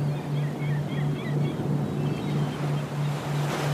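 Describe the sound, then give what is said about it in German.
Steady surf from the sea rushes and washes without pause into a small natural rock pool lined with tall palms, in sunshine, with faint birds chirping above it and a low, rhythmic droning hum running underneath. “In das kleine Naturbad vor uns schwappt hin und wieder eine Welle und sorgt für frisches Wasser.”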